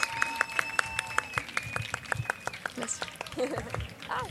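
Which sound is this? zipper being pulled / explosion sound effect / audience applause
audience applause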